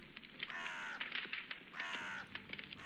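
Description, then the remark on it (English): Two loud, raspy crow caws ring out about a second apart, each drawn-out and harsh, at a cemetery during a funeral on a grey, cloudy day, with faint scattered crackles of a burning funeral pyre and ambient noise filling the gaps. “The soundtrack to this grey, cloudy day was the sound of his pyre burning and the occasional harsh calls of crows.”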